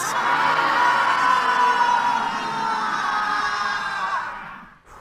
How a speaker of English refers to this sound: Come down. When's the last time you yelled like that?